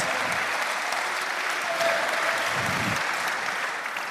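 A crowd applauds steadily, a dense, even wash of many hands clapping that holds at the same loud level for several seconds without pausing.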